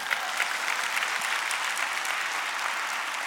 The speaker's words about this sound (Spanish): Date un aplauso, gloria a Dios.